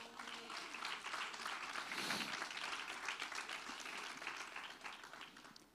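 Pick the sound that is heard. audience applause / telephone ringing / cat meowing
audience applause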